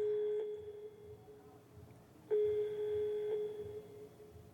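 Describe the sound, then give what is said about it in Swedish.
A steady electronic telephone ringing tone of a call placed to a youth home sounds over a quiet, low background, faint at first and then louder and continuous for the last couple of seconds. No one speaks. “Jag fick numret till ungdomshemmet där Elis var. Jag ringde dit.”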